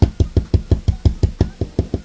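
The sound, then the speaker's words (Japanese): Fingernails tap a smartphone case in a quick, steady rhythm, about a dozen evenly spaced taps in two seconds, each a short dull knock with a faint clicky edge, with no talking, imitating an older man about four seats away tapping his phone case with hard nails. “こんなんが、こんなんが4つぐらいの席のおいちゃんが爪の音でスマホのケースを叩くような、あの、聞こえますかねこんなんのもっと、もっともっといい感じで爪が硬くて、あの、こう、もうずっとやってるわけです。”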